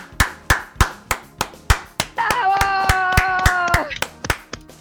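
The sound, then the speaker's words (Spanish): Steady, rhythmic applause for a contestant who has won the golden number 4 in a six-figure number draw, with sharp claps in unison at an even pace, joined midway by a sustained high vocal note like a cheer held for over a second before the clapping continues alone. “Fuerte el aplauso, te ganaste el 4 dorado de estos números, de ese número de seis cifras que estábamos sorteando.”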